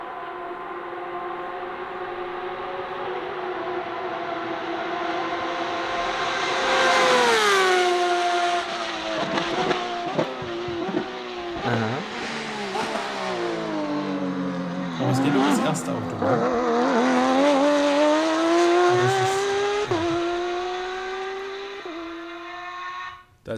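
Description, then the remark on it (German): A single race car engine roars loudly and steadily, its pitch climbing through repeated gear changes and sweeping up and down as it drives past over about twenty seconds. “als das nur ein Auto zu hören eigentlich.”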